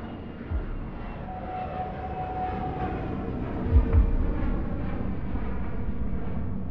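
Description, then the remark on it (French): A steady, droning roar of an airplane in flight, carrying Judge Fontaine to Québec, fills the whole stretch, with a faint high whine running through it and a couple of low thumps near the end. No one speaks. “le juge Fontaine s'envole pour le Québec.”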